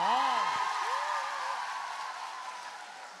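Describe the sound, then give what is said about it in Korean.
A crowd cheers and claps in a dense, steady wash of applause, with a few high whoops and whistles rising over it early on, then slowly tapering off. “다시 한번 함, 성 박수 한 주세요.”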